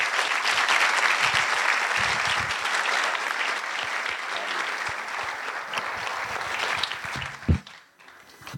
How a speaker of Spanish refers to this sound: Ellos son, como dije, parte de la iglesia hace como dos años y quisiera que nosotros le demos la honra de recibirla con un aplauso de bienvenida este mañana.